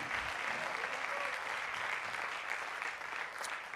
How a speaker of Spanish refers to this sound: Dele, dele fuerte el aplauso. Dele fuerte el aplauso por lo que viene. Déselo fuerte por lo que viene.